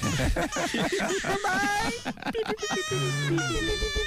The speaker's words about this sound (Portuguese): tem nada pior do que você ouvir choro de criança. É. Você se sensibiliza.